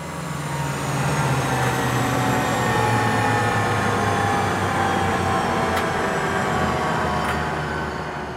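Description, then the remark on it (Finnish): Inside a helicopter flying away from a city over green mountains and forest, the cabin drones with a loud, steady roar of engine and rotor noise. The dense mechanical hum holds constant from start to finish, and no one speaks. “Kun kaupunki jää taakse, helikopterin ikkunasta alkaa tunkea kuumaa ja kosteaa ilmaa.”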